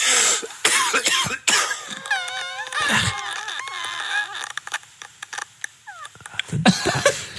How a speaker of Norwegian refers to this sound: Han har sendt oss en lyd av lungene sine. Det, det er sjuk mann. Det er jeg høre det igjen. Det, det, det, det, det, det, det, det, det, det, det er sånn, veldig sånn plastisk lyd fra lungene etter hostinga der.